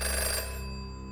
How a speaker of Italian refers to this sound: Il telefono suona, tiri sulla cornetta.